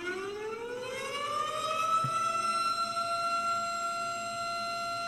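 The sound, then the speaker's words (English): A voice imitates an emergency siren, a single wail that climbs in pitch over the first second or so, then holds a steady, sustained tone to the end, fairly loud and with no talking. “well, then should we should we just replay the siren again? Yeah, just replay my siren.”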